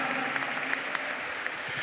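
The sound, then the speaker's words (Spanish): A church audience applauds the Lord in a dense, steady wash of many hands clapping, with a few sharper claps standing out. No one speaks over it, and it holds at a moderate level throughout. “Dele un aplauso al Señor y bendiga su nombre.”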